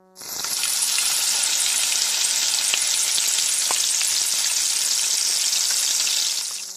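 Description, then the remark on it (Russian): Battered pieces of fish, placed one at a time into hot oil, fry with a steady, dense crackling sizzle that holds at an even loudness for about six seconds, with a few sharper pops, and no talking. “аккуратно, очень аккуратно поместите рыбу в горячее масло по одному кусочку.”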